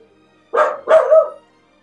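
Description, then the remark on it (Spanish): A dog barks twice in quick succession, fairly loud, the second bark longer and more drawn out, with quiet before and after. “Pero ahí estaba mi perro también”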